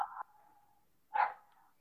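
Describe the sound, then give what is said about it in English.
A dog barks twice, a short sharp bark followed by a louder one about a second later, each trailing off into a faint whine. No one speaks. “I'm sorry, I'm trying to get my dog to stop barking.”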